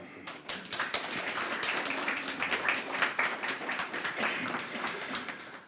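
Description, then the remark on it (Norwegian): Steady applause from an audience welcoming a poet, many hands clapping in a dense, crackling wash that holds fairly even for several seconds without voices standing out. “En applaus til deg”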